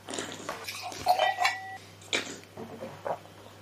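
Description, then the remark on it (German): A white wine glass is picked up and set down, with soft knocks and a couple of bright clinks, one leaving a brief, clear ringing tone. No one speaks. “Gib mir mal dein Glas. Dieses Weißweinglas?”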